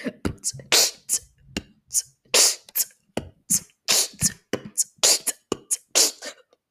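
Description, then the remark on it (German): A single voice beatboxes a quick, steady groove: punchy kicks, crisp breathy hi-hats and sharp inhaled K snares, repeating in a tight loop, fairly loud with no talking. “ja, und zwar ist es einfach nur äh, Kick, dann Hi-Hat, dann Inward Case ne, und dann Hi-Hat. Und das klingt so.”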